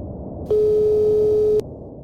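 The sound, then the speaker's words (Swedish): A single long telephone ringing tone on a call to criminologist Leif GW Persson, a steady mid-pitched beep lasting about a second, sounds loudly over faint line hiss before cutting off, with no voices. “Vi ringer till.”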